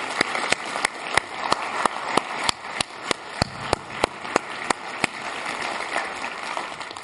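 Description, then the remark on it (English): An audience applauds God during a church sermon, a dense wash of clapping with sharp, evenly spaced claps cutting through about three times a second, holding at an even level throughout without any voices. “Will you applaud with me?”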